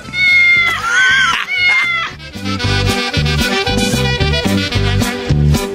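A cat meows loudly near the start, one drawn-out rising cry over bouncy, rhythmic music that keeps playing to the end.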